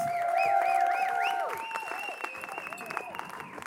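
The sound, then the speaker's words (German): A church audience on Vision Sunday applauding its locations in Biel, Thun, Interlaken, Oberwallis and Freiburg, with dense clapping mixed with cheers and swooping whistles, loud at first and then easing off after about a second and a half. “Geben wir denen mal einen herzlichen Applaus.”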